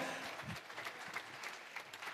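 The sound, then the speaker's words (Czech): An audience claps steadily in the Vrtbovská zahrada (Vrtba Garden), a dense patter of many hands applauding together, sustained and fairly loud throughout with no voices rising above it. “Doprovoďte dámy na fotografování za zničujícího potlesku, kterým celá Vrtbovská zahrada tleská vašemu svědectví.”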